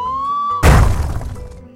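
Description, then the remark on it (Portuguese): A steady whistling tone cuts off into a sudden, loud smash as a frog falls from a height onto the rocks of a riverbed and shatters into pieces, followed by a scattering, rattling decay of debris that fades over about a second. “O sapo caiu em cima das pedras do leito de um rio. Ficou em pedacinhos.”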